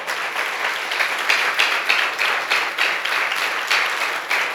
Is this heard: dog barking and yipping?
no